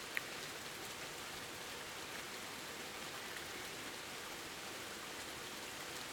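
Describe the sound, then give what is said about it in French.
Steady rain falls without a break, a dense, even hiss of countless drops with no voices, fairly soft and continuous throughout. “Alors là, il pleut, et tous les animaux sauvages se cachent, puis les humains rentrent dans leur maison.”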